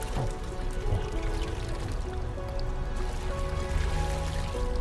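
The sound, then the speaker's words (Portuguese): A steady rush of falling water, like a waterfall, pours continuously with no pauses, while soft sustained tones hum faintly beneath it. “e vai se aproximando ainda mais, ficando nessa cascata de água, água crística.”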